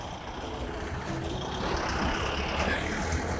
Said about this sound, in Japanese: めちゃくちゃね、車高が低い車が今来ましたが。